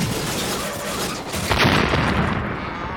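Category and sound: sound effect, explosion sound effect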